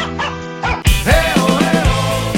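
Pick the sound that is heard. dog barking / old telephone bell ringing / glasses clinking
dog barking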